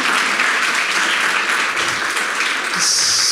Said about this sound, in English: So, so I don't think I've ever heard a clap for sea seashells and whatever. Isn't awesome? Ooh, good crowd. You, you, guys had no idea you'd be clapping for that today when you woke up, did you?